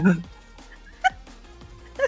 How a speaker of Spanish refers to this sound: Es que empezó a ladrar el perro. Sí, lo escuché.